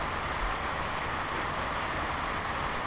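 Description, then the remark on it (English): Heavy rain pours down in a steady, dense hiss with no letup, a constant wash of noise filling the space and no voices. “it's raining a lot. Oh my god, it's raining a goddamn ton.”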